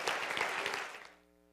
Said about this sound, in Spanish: Ahora denle un aplauso a Dios que estamos alabando al Señor.